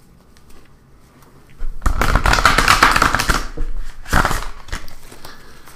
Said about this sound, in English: Give it another shuffle.